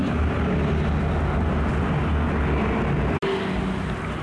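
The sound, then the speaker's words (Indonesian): Steady, fairly loud traffic-like engine rumble fills the background continuously, consistent with motorcycles passing by, with a brief dropout near the end and no talking. “Oke, okay, so kalau backsoundnya motor-motor lalu lalang.”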